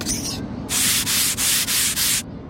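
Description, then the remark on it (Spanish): A blackboard eraser rubs briskly across a green blackboard in a school in about four quick back-and-forth strokes, a dry, scratchy swishing sound with brief pauses between strokes. “El borrador.”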